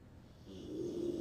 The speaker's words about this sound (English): Sorry, I'm laughing because your dog's little snoring.